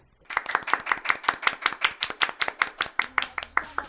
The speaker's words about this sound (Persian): این کف زدن دیگه برای چی بود برای اینکه خیلی باهاش موافقی